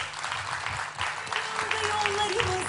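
An audience breaks into steady applause, a dense wash of many hands clapping at close range, with a faint tonal hum and some crowd noise threaded underneath.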